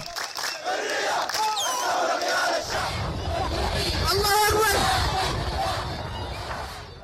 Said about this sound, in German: Familiar slogans from the Arab Spring are now echoing across Sudan.